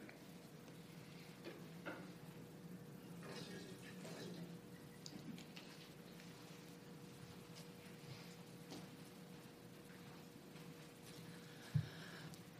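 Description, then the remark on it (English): Water is poured steadily into a container as an offering, a soft continuous trickle and splash lasting throughout, fairly quiet, with a faint low hum beneath and one brief knock near the end. “And so I offer it as part of the oneness that we carry from the past as we carry it into the future.”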